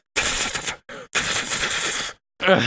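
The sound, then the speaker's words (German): Rapid, dense typewriter clatter comes in a few loud bursts with short gaps between them. A voice cuts in briefly at the end. “Ja, gut, da gab es schon Computer, aber wenn er die ganze Zeit an einem scheiß Schreibmaschinen stand”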